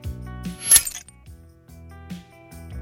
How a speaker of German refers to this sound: Und die dritte Variante war ganz klassisch einfach nur den Hammerschlag rückwärts abspielen. Denn dann hatten wir auch die richtigen Höhen für den Flug.